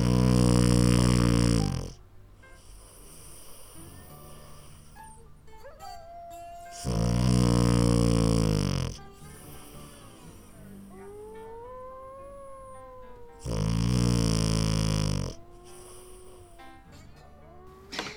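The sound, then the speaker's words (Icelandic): A Danish dog snores heavily while lying down: three long, loud, rasping snores at slow, even intervals, with faint whiny squeaks in the quiet between them. “þetta er danskur hundur sem heitir Vuki sem er mikið greppitrýni og hrítur þarlegandi”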